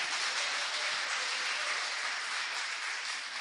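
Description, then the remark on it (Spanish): An audience claps together in a dense, sustained wash of hand claps that stays steady and fairly loud throughout, with no voices standing out above it. “Dele palmas al rey.”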